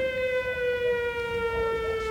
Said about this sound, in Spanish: ¿Oyeron la sirena? Ay, cada vez que oigo la sirena es como si gritasen todas las madres juntas.